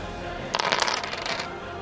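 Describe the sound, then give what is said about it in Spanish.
Two six-sided dice are rolled for a tabletop game roll and land on double two. They rattle and clatter across a hard surface for about a second, a quick burst of small clicking knocks that settles into quiet, moderately loud. “Entonces me vas a lanzar dos dados de 6 y le vas a sumar miedo, al cual tienes más uno.”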